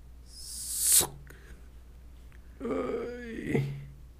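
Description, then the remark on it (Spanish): A voice imitates an arrow whizzing past: a sharp, rising hissy whoosh that cuts off abruptly, followed after a pause by a low, voiced grunt-like vocal sound. “Nada más escuchaste y sabes que eso es una flecha.”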